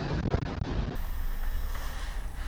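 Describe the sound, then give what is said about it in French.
Steady outdoor wind roars and buffets the microphone with a low rumble, a continuous wash of sea waves underneath, fairly loud, with no one speaking. “Et je sais pas si vous m'entendez, si vous entendez le bruit du vent ou des vagues, mais c'est un spectacle assez sympa”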